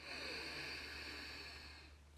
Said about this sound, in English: if you close your eyes and relax your shoulders and just sit nicely up, you can take a long breath in through your nose